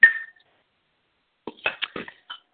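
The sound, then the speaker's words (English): A single bright clink of crockery rings out and fades, followed after a pause by a quick cluster of scraping, clattering sounds as mac and cheese is dished up. “My mac and cheese that I'm just dishing up right now.”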